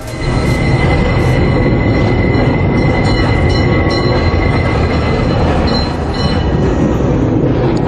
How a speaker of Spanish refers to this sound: Se oían silbidos de las locomotoras en la estación próxima.